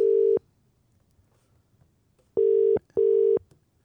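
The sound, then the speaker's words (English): An unanswered phone call's ringback tone: steady electronic beeps heard down the line in a double-pulse pattern, one beep ending, then a pause, then a close pair. Clear and loud, with no talking. “That's if he answers the phone.”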